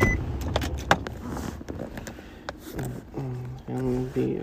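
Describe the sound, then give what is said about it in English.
Inside a car, a few sharp clicks and rattles give way to the steady electric whine of power windows rolling down, humming in short bursts with brief pauses between them. “Gotta roll my windows down.”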